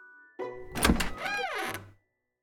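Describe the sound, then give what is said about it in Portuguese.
A door is unlocked: a solid mechanical clunk of the lock, then a short rising-and-falling creak, all over in about a second and a half with no voices. “Assim que Gumercinda destrancou a porta, os irmãos perceberam que ela estava chorando.”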